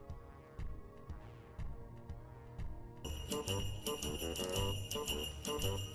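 An upbeat instrumental music intro; about halfway through, bright jingle bells come in, shaking in a steady rhythm over a bouncy beat, like the opening of a festive Christmas novelty song.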